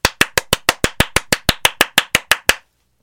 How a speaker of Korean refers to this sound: 자, 박수 미션은 클리어 됐고